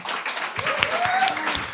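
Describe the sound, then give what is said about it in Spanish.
An audience in Vigo applauds invited guests, a dense, steady wash of many hands clapping at once, with a faint rising whistle or cheer threaded through it. “Estáis aquí invitadas y un fuerte aplauso por parte del público”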